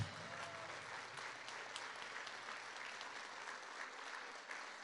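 audience applauding

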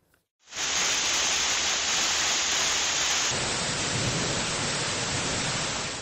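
heavy rain downpour

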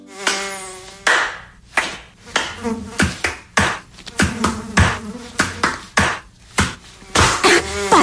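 mosquito buzzing

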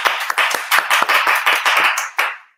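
applause

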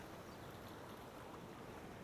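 sea waves

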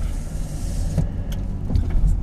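car driving on road

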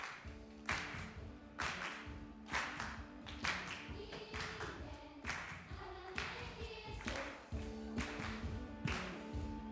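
audience applause

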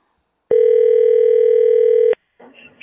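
telephone dial tone

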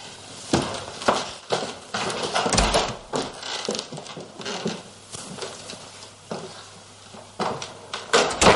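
door closing

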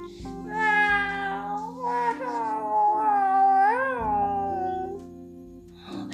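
kitten meowing

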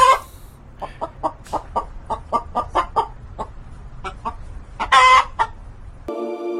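hen clucking

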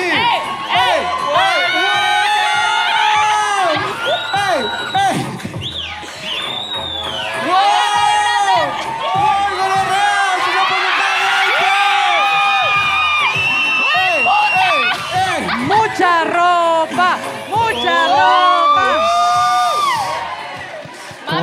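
crowd cheering and whooping

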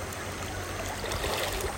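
flowing river stream water

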